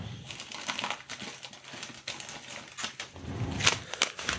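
Plastic packaging of a small, already opened 700-millilitre bag of Dua Jungle Soil aquarium soil crinkles and rustles as it is handled, in a dense run of small crackles and snaps, with a few sharper pops near the end; no one speaks.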